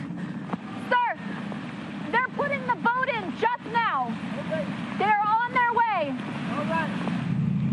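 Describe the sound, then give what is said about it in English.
A low, steady airboat engine drone rumbles under a man's voice talking, growing a little louder near the end as a Harris County Sheriff's Office airboat approaches a semi truck stalled in about 10 feet of floodwater, with some wind and water noise. “The airboat for the Harris County Sheriff's Office now approaching this semi that has been stalled here, uh, headed east or headed westbound in the eastbound lanes.”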